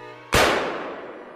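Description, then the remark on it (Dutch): A single sharp gunshot, the first shot fired by the king on a hunt at Kroondomein Het Loo, cracks out loudly, its broad blast decaying into a long ringing tail over about a second, with a faint steady hum beforehand and no talking. “En daar wordt het eerste schot gelost door de koning.”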